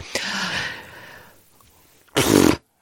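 A fart sound, a long airy, sputtering blast that trails off, followed after a short pause by a second brief, louder burst with a low buzzing core. No one talks.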